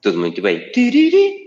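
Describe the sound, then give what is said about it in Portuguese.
A man speaks briefly, then vocally imitates the power-on chime of a drone being switched on: a short, rising three-note melody sung clearly. “Começo eu, ligar o drone.”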